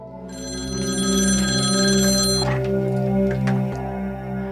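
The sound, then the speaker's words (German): A telephone rings loudly and steadily, its bright electronic trill sustained for a couple of seconds before fading into a low background hum, with no talking. “Ansonsten passiert in ihrem Leben nicht viel bis sie am 26. Juli 2000 einen folgenreichen Anruf erhält.”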